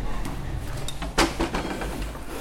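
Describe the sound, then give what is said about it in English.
A skinny, thin wooden door of a rented apartment in the oldest part of the village of Pescasseroli in Abruzzo, Italy, is pushed open, with a sharp knock or latch click midway and a few faint creaks and scrapes over a low background rumble. “Skinny little wooden door here.”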